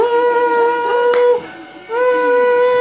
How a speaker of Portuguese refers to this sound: Tá, tá, tá, tá, tá, tá, tá, tá, tá, tá, tá, tá, tá, vuvuzela.